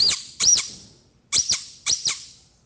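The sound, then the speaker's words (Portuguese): A toy truck horn honks in three quick pairs of bright, squeaky toots, each burst sharp and high-pitched with a short fading tail, and no voices. “O papai de Joãozinho trouxe uma buzina!”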